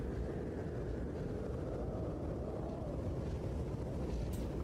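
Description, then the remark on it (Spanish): Steady, heavy storm wind outside roars continuously throughout, a dense low rumble with no breaks and a brief brighter gust near the end. No voices are heard. “Que se escucharía en el gramófono si no fuera por el viento que viene desde fuera. La tormenta es terrible.”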